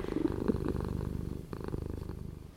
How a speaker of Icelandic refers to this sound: og svo líka bara er mjög róandi að vera í kringum keisur þær eru, það er svona þekktar fyrir að mala og þegar það er mala þá á þetta að vera eitthvað mjög róandi fyrir okkur